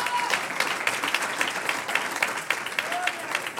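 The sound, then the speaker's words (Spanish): A crowd applauds the Lord steadily, a dense wash of many hands clapping at a sustained, even loudness for several seconds, with a few brief tonal whistles or shouts rising above it. “un aplauso al Señor.”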